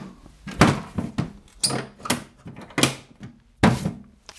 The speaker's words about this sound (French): Je referme la boîte magique.